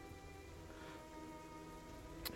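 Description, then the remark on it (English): A steady, unbroken hiss of heavy rain pours down in a storm, fairly quiet and constant throughout, with a brief sharp tap near the very end and no voices. “it says a it says an even bigger cloud of heavy rain downpours an hour for fledgling adventurers.”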